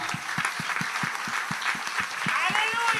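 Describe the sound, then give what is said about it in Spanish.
An audience applauds, with steady rhythmic clapping at a quick, even pace over a dense wash of crowd noise and scattered voices throughout. “Si le va a dar el aplauso.”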